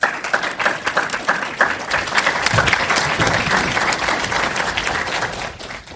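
An audience applauds a presenter after a presentation at a Future Tech session of Legal Tech West Coast in Los Angeles, steadily for several seconds, a dense wash of many hands clapping at once that holds a fairly even loudness and tapers slightly at the end.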